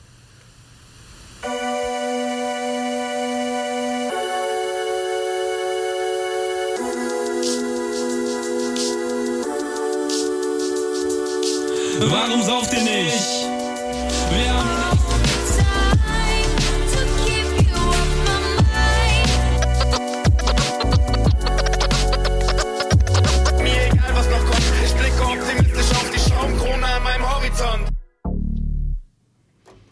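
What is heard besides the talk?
music track played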